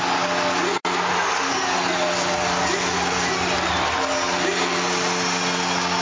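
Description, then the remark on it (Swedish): A packed crowd at Gälleräven Center roars after a goal making it 2-0, a loud, unbroken wall of cheering that holds steady for several seconds, interrupted only by a split-second dropout near the start. “Och stället går bananas! Fullständigt! Gälleräven Center jublar!”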